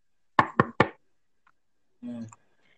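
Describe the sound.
Three quick, evenly spaced knocks rap out loud, imitating knuckles knocking on a door, followed after a pause by a brief murmured voice.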